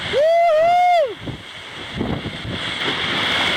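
A sailboat surges downwind in a big breeze and big waves, wind buffeting the microphone and water rushing steadily past the hull. It opens with a loud, drawn-out vocal whoop.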